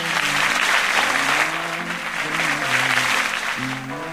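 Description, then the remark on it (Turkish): An audience applauding on the Gedik Show, a loud, dense wash of clapping that holds its level for the full four seconds, with faint murmuring voices mixed underneath. “Alkışlar.”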